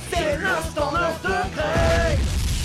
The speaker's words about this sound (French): J'adore cette explosion.